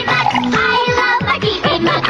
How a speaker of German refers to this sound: Pipi Max kann trinken.